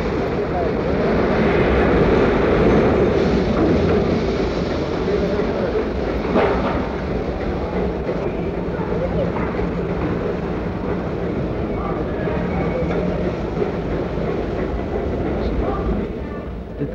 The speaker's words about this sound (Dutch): trein die daar binnen rijdt is bijna leeg. Voor op de locomotief staan twee soldaten met het oog op mogelijke luchtaanvallen. Ze hoeven niet lang te wachten, want merkwaardig genoeg vertrekt de trein spoedig.